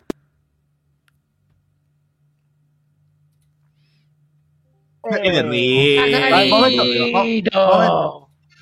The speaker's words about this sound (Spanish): Pajaritos, pero no pintados en el aire.